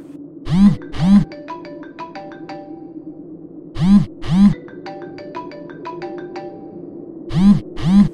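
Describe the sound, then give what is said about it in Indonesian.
A phone ringtone from an incoming call plays a looping tune, repeating about three times: two punchy thumps followed by a run of bright, tinkling chime notes, over a steady low hum. “Aduh, ini si Resto ngapain telepon segala?”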